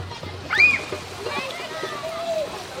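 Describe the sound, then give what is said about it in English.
Splashing and sloshing water mixes with children's shrieks and chatter, kids playing in a park fountain in Portland in summer, with a bright high squeal near the start. “Parks filled with drum circles and children playing in fountains.”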